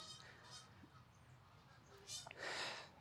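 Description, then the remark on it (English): Geese honk in a series of harsh, nasal calls, several bursts spread across the moment with the loudest near the end, set against a steady outdoor background hum. “The geese, man.”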